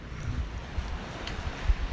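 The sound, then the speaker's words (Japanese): Sea waves wash onto a beach at night on a cold weekday in a steady, rumbling roar, with irregular low thuds rising briefly from the continuous noise. No one speaks. “ちょっとね波浜辺でだいぶね海の近くなんで波の音がでかいかもしれませんね、うんあの平日から夜の海に来ておりますけどもはいなんともですねまあ意外と寒い”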